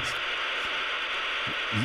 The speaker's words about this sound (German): so fing jede Chat-Session an. Wenn man sich eingewählt hat, das Modem hat diese Töne, hat dann irgendwann sich ausgeschaltet. Und so lange war es dann nie.